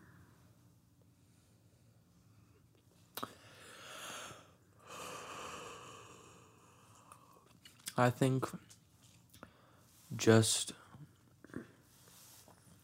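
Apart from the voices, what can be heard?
yawning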